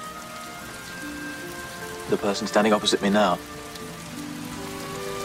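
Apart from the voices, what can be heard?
rain falling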